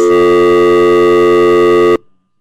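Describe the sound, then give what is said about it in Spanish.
A loud, steady electronic telephone ring tone sounds for about two seconds, then cuts off abruptly into silence. There is no talking. “Adoro ese sonido del teléfono.”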